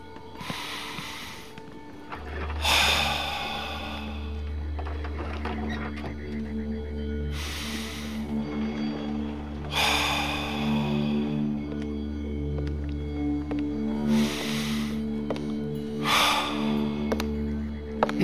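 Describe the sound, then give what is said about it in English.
Slow, deep breaths during a guided relaxation exercise, about six long airy inhales and exhales, over a steady low humming drone, with no talking. “Continue that deep breathing, and I'll be right back.”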